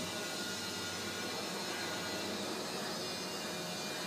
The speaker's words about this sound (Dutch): Even tussendoor, er vliegen op de aarde nog vliegtuigjes met schroefmotoren.